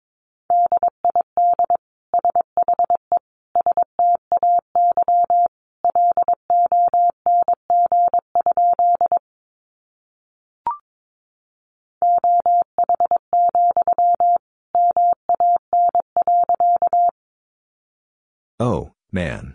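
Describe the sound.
A clear single-pitched tone keyed rapidly in Morse code at 22 words per minute, fast bursts of short and long beeps, loud, with a brief pause midway; a voice cuts in right at the end.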